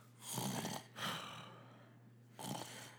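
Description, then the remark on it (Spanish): A voice imitates light snoring: three soft, breathy snore sounds with pauses between them, fairly quiet, with no talking. “Porque hay cientos ronquidos, güey, como que el”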